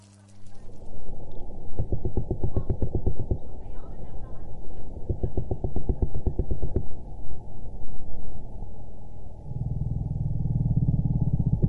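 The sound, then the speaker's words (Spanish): A haddock fish makes rapid trains of low-frequency, knocking clicks in two bursts, each speeding into a buzzing rattle, over a steady low underwater rumble that swells near the end. “Y hablando de, peces, tenemos el eglefino, que mm, no sé qué pez es, pero que tiene un sonido muy interesante y que suena así.”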